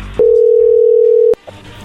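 A steady, loud telephone dialing tone holds one unbroken mid-pitched note for about a second, then cuts off sharply, leaving faint background murmur.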